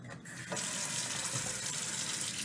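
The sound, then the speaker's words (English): Boiled water pours steadily into a French press, filling it up to the spout, a continuous hiss that swells louder after a brief softer start, with no one speaking. “the water into the um, French press after it boils here, you want it to be just right at the spout here so that when you put the lid on and stuff, um, it won't like spill out and burn you.”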